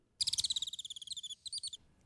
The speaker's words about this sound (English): Here's a real Bengalese finch, and here's a copy.